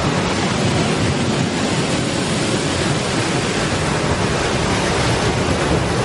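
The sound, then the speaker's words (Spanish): A steady, dense, distant roar of ocean surf at a shore with dunes, a constant wash of breaking waves with no distinct individual swells and no voices. “A unas decenas de metros, Julio está sentado sobre una duna mirando las olas.”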